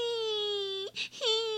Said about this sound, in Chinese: 忽然听见墙那边传来小小孩的哭声